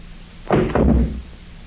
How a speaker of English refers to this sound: Now come on, amigos. We break down the door. Now, together.